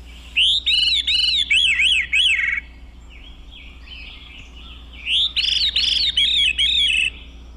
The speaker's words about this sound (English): Recognize that sound? The really unusual sounding bird with that almost metallic ringing quality to it. It's the veery, a relative of the wood thrush, another beautiful uh, songbird thrush.